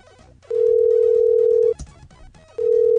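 A telephone ringback tone sounds as an unanswered call to extension 109 in Texas keeps ringing: a steady, mid-pitched electronic tone holding for over a second, a brief pause, then the next ring beginning, with no voices.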